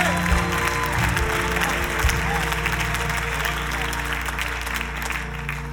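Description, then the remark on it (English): Steady, dense clapping during a sermon continues for about six seconds at an even loudness, with a low sustained hum or murmur running beneath it. “It's I'm clapping, I'm clapping, I'm clapping.”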